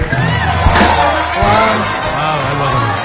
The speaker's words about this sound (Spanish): Cantas muy bonito. Este aplauso es tuyo.